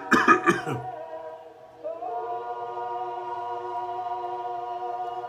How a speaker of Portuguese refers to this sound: Eu só engasguei, viu? Ficar falando rápido demais aqui. Engasga com a saliva.